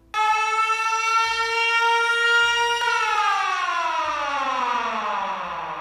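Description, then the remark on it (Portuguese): A loud, steady siren wail holds one pitch for a few seconds, then slowly winds down, its tone sliding lower as it fades. There is no talking, only some faint low rumbling beneath. “No dia seguinte, a garota só apareceu na cantina quando ele já estava saindo depois do toque da sirene.”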